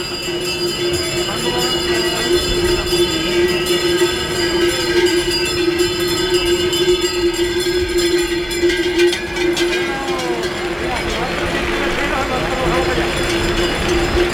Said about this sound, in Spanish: Salen los bueyes, como se oye ese concierto de cencerro.